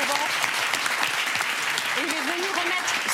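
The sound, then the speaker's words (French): Sustained applause from a large crowd at the Molières ceremony, a standing ovation for Pierre Richard, a dense steady patter of clapping throughout, with a voice briefly audible beneath the clapping. “Mais moi, j'ai envie de l'ovationner, de l'applaudir, bah Pierre Richard.”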